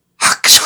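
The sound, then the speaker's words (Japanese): A voice mimics a sneeze in two quick bursts, a breathy intake followed by a sharp, hissy explosion, fairly loud, with no other talking; it imitates a man sneezing while carrying a brimming cup of coffee, spilling it. “自分でくしゃみしちゃったんでしょそうそうそう。”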